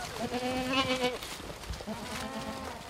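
A herder's goats and sheep, kept to graze land for landscape and nature conservation, bleat in two long wavering calls separated by a short pause, with faint buzzing of insects and outdoor background noise underneath.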